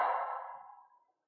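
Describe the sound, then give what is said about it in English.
A shouted call echoes in a cave, its echo ringing briefly and then fading smoothly into silence within about a second, with nothing else audible. “It's just an old echo.”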